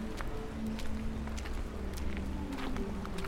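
Quick footsteps cross Jernbanetorget square at a brisk, steady pace, each step a crisp tap over a continuous low city rumble and a faint droning hum.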